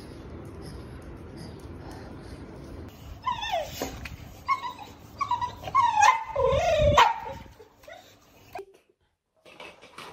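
A dog whimpers and whines in high, wavering cries, breaking into a couple of short sharp barks near the middle, fairly loud, then fading to quiet at the end.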